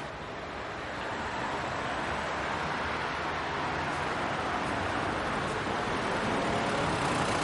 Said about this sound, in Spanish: El coche gira en un cruce.